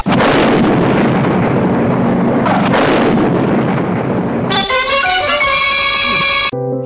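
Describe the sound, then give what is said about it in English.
A loud, sustained explosion of a bag of fertilizer left in a telephone booth in a building's lobby roars with broad rumbling noise for several seconds, then cuts to a bright, ringing musical tone that holds briefly before stopping abruptly. No one speaks. “Prime Minister Arnold Schwarzenegger survived the explosion?”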